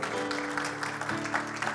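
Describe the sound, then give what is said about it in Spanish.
A church audience applauds Jesus steadily, many hands clapping in a dense, continuous patter, with a low sustained musical tone held underneath throughout. “Denle ese aplauso fuerte a Jesús porque Él es bueno.”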